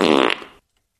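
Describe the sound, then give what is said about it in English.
A single loud fart, a buzzy, sputtering blast lasting about half a second that trails off and cuts to silence. “fart jokes belong to us, ladies.”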